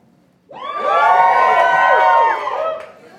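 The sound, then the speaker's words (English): A live audience at the WeWork London offices bursts into loud cheering and whooping, a dense wash of many voices rising together and holding for about two seconds before fading out. “For those of you listening at home and around the world, this is our third show in front of a live audiences at our offices in WeWork London. Uh, crowd, how are we?”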